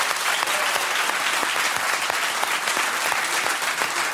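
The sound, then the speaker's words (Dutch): Steady, dense applause from a studio audience for the team of ladies and gentlemen, many hands clapping at once in a continuous even wash for a few seconds, fairly loud, with no voices over it. “Even applaus voor dames en nou, heren van de...”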